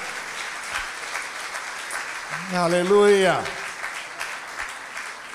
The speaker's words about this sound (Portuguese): Vamos aplaudir nosso Deus, vamos. Aleluia, Senhor. Nós aplaudimos o teu nome, Jesus, e aplaudimos a tua palavra.